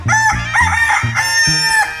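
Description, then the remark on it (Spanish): A rooster crows loudly, a bright, drawn-out cock-a-doodle-doo with strained, rising and falling tones, used as a sound effect in a Spanish-language radio ad for El Gallito Income Tax. No one speaks over it. “porque ya, esto ahora sí se llama el gallito, porque antes era pura robadera.”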